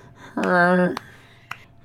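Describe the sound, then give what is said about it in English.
A pet snores once, a short nasal, buzzy breath, followed by two faint clicks in otherwise quiet surroundings. “yeah, he's totally snoring.”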